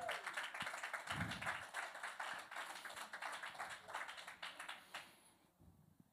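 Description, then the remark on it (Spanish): A church audience breaks into loud, dense applause offered to the Lord, many hands clapping in a steady crackling wash for about five seconds before it quickly fades out. “Dele un aplauso al Señor para que se relaje.”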